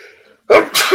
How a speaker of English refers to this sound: Sorry about my sneeze, folks.